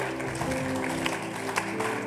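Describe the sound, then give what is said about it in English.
A church audience claps together as an offering to the Lord in a steady, dense wash of applause, with sustained tones underneath, likely an organ or keyboard, and no one speaking. “Somebody give the Lord a good clap offering.”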